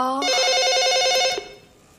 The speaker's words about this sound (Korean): 아, 아침부터 학교로 걸려오는 전화 무서운데. 그럼 이 전화는 집안일 덜 하는 제가 받겠습니다.